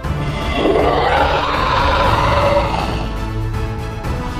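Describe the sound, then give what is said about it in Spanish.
A deafening monster roar rumbles loud, a rough, growling bellow that swells and holds for about four seconds before trailing off, with no talking. “Cuando terminó de abrirse, se escuchó un rugido ensordecedor.”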